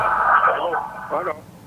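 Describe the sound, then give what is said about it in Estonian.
A caller's radio plays in the background over a phone line during a call to a radio call-in show, a voice coming through thin and band-limited with a faint echo, moderately loud but muffled, as if the broadcast is bleeding back into the call. “ja keerake raadio vaiksemaks, siis kuuleme teid paremini.”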